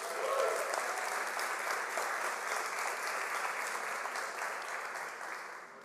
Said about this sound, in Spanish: Antes de continuar, quiero saludar a los que nos sintonizan a través de las redes y quiero también darle la bienvenida con un fuerte aplauso a todos los que vienen por primera vez.